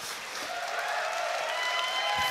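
Steady audience applause at the Movie Trivia Schmodown, a dense wash of many hands clapping at an even, sustained loudness with a faint crowd murmur underneath.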